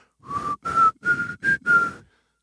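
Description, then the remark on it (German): Someone whistles a short tune, five breathy notes in steady succession with slight shifts in pitch, sounding like the opening of a rock melody, with no talking. “Ich, ich kann was pfeifen.”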